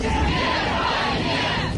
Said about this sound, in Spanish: Con aplausos y arengas en contra del gobierno de Vladimir Putin, fue despedido el líder opositor Alexei Navalny.